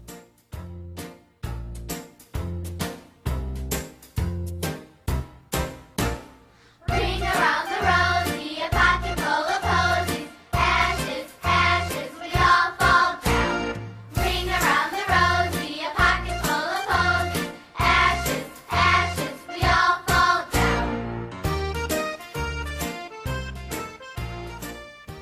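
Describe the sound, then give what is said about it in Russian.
A classic British and American children's nursery rhyme song is sung to a bouncy, steady accompaniment, starting with a sparse, plucky intro before fuller, louder verses take over and carry on to the end. “В Великобритании и Америке это уже классическая песенка «Ring a Ring a Roses». Вы наверняка слышали ее в американских фильмах, вот так она звучит”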